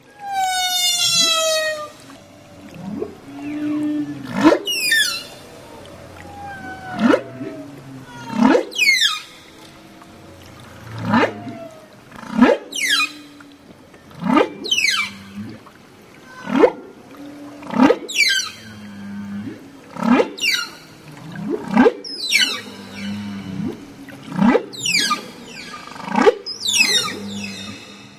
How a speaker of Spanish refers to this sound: así que si tú también estás buscando pareja, no dejes de emular estos cantos de ballena jorobada. Esta fue grabada en febrero 6 del 2011, ahí por supuesto en el Océano Pacífico.